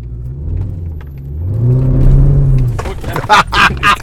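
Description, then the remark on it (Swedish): An old V8 car engine cranks and catches, its deep rumble swelling into a steady low idle before fading as people start talking and laughing. “Du, apropå institut, nu ska vi gå in och institutiera oss och eh, starta ihop den här gamla V8.”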